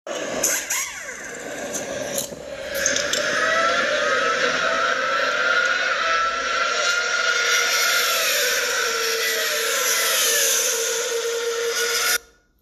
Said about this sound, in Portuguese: que vocês acabaram de ouvir são os barulhos dos motores dos carros da Fórmula 1.